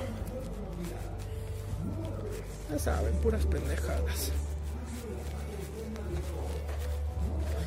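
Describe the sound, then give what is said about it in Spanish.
Busy outdoor amusement park ambience at Six Flags: a steady low mechanical rumble that swells partway through, with scattered noise and bird calls, while a man talks over it. “Están escuchando ahí la mamada de Six Flags, ¿verdad?”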